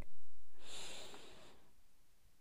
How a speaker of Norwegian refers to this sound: Og så puster vi inn en gang til.